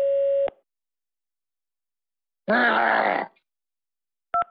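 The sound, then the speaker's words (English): A person records a phone message: after a steady electronic tone, they let out a short, loud, strained squeal imitating a pig, followed by a quick double beep. “I want you to squeal like a pig.”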